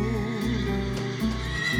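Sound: horse neighing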